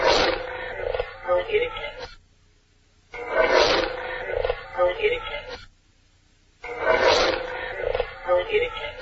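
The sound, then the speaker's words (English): A deep, rasping growl on a recording plays three times, each loud burst about two seconds long and separated by brief silences, with a muffled woman's voice trailing right after it. “you'll hear a growling and then a woman's voice directly after”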